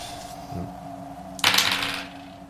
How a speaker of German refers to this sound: Ich würfel immer richtig gut mit dem Sechser, aber das ist ja der 20er. 6 gegen 9.